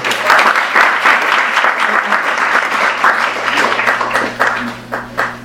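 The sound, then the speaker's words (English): An audience applauds speaker Alex Vitale after his talk, a dense wash of many hands clapping at once, thinning toward the end into scattered individual claps, with a low steady hum underneath. “another round of applause for Alex Vitale.”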